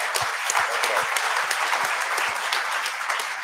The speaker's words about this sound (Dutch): Je krijgt er wel vast een applaus.